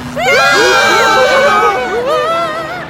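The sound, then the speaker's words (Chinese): An opera house audience, mid-performance, erupts in loud, overlapping screams of fright as the central chandelier flickers, many high-pitched voices wailing and rising together, sustained for nearly three seconds before a fresh wave of shrieks near the end. “吓得观众们尖叫不已。”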